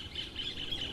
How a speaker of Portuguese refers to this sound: Olha o passarinho cantando, que coisa bonita.